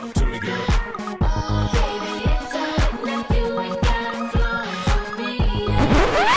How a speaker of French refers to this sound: cette chanson, vous la connaissez forcément, c'est ….